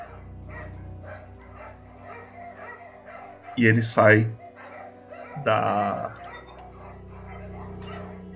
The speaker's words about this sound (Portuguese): Os cachorros dão novamente os últimos latidos.